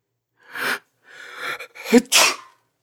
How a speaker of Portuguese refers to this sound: Não consigo conter o espirro.